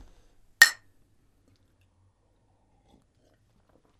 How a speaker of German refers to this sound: Einfach saufen. Fertig. Die Zeit nutzen, um zu Komm, saufen. Lass anstoßen. Prost.